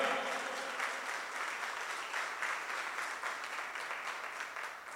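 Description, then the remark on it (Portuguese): A crowd applauds steadily for about five seconds, a round of applause for the Lord: a dense, even wash of many hands clapping at once with no voices rising above it. “Vamos a dar una salva de palmas al Señor, aleluya”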